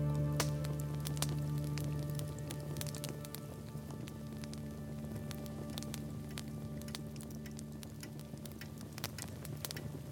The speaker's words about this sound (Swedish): elden som sakta brinner.